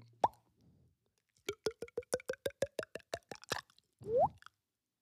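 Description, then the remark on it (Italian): A mouth imitates uncorking a bottle of Alba Gin: a quick rising pop, then a steady run of about a dozen hollow tongue clicks, ending in a louder, resonant upward-sweeping pop, clear with no talking. “Prima lo Quella stappiamo. Bo- lo stappiamo, come fa?”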